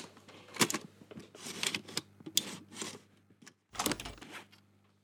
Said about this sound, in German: Das war tatsächlich ein äh, äh Das Öffnen und Schließen eines CD-Laufwerkes. Beziehungsweise DVD.